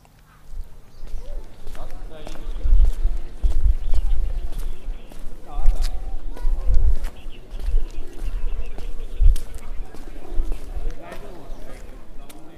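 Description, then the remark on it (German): Steady footsteps walk through the streets and squares of a city, each step a crisp tap in an even rhythm over a low murmur of outdoor background noise. “Wenn ich hier so über die Straßen und Plätze spaziere, fühle ich mich doch trotz Hunderten von Kilometern Entfernung irgendwie, ich weiß nicht, zu Hause, was auch immer das genau heißen soll.”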